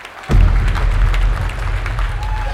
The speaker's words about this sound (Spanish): Vitorean a Richard Spencer, el líder de la alt-right. Parecen extasiados.